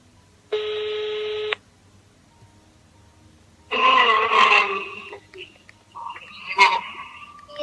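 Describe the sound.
A single steady electronic ring tone sounds for about a second over a phone line, then after a pause come loud, wavering, distorted voice-like sounds.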